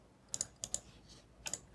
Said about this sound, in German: Da fliegen Papierflieger. Das klingt aber schon mal gut. Also Papierflieger im Hörsaal sind grundsätzlich sympathisch.